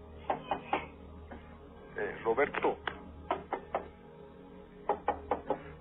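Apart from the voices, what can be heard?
knocking on a door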